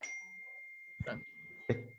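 A thin, high-pitched phone notification tone rings steadily for about two seconds, fairly quiet, while a voice briefly talks over it twice.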